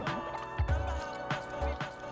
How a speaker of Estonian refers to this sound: võtsin vett vahepeal.